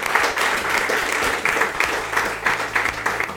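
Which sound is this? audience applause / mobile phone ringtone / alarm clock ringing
audience applause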